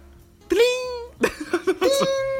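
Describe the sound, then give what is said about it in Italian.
A person vocally imitates the high-pitched WhatsApp message notification tone: a sustained sung note, a quick run of short chirpy syllables, then another held high note, fairly loud. “E quello, quello, di Whatsapp è un high pitch, è proprio acuto, tipo...”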